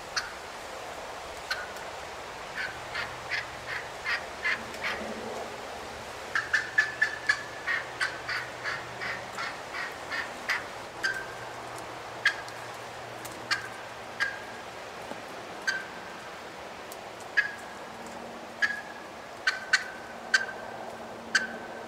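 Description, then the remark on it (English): A wild turkey gives a long series of short, sharp clucks, some thin and squeaky like squeaks, coming at a steady, slightly uneven pace with a brief faster burst, over a low background hum. “Um, this this turkey's clucks are more like squeaks.”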